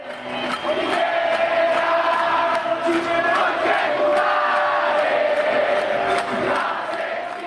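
protest crowd chanting slogans

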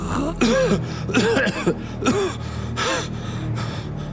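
coughing

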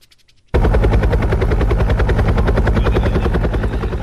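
helicopter

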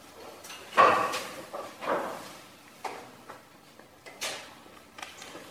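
door opening

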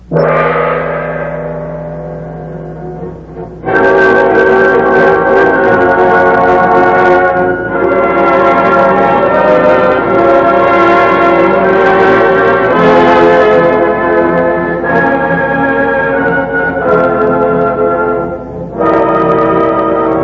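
gong being struck

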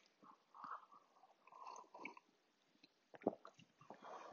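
sipping coffee

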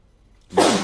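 sneeze

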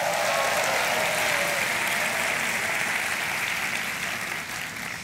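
church audience applause

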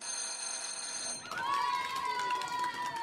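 bell ringing

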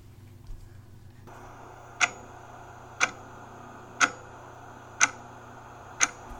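clock ticking

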